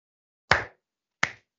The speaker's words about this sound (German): Applaus, oder? Da klatscht der Nachbar Applaus.